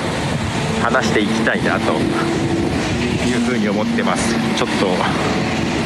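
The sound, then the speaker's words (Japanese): A steady, loud engine rumble from a construction vehicle drones throughout, with a man talking over it as he walks outdoors along a street during his lunch break. “工事車両の音が入ってると思いますが、ね、そんなことを今歩きながら喋ろうかと思っていますよ”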